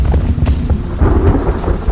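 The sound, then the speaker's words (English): A thunderstorm at night with deep, rolling thunder rumbling continuously beneath steady, harsh rain and constant flares of lightning, loud, with no voices. “In turn, I fell down a short flight of stairs, my body rolling into the storm raging overhead.”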